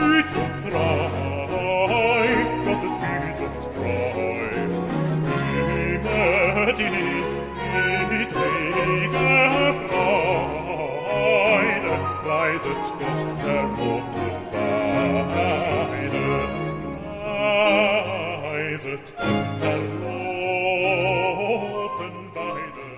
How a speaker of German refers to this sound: So klingt die Bassarie in dieser Trauungskantate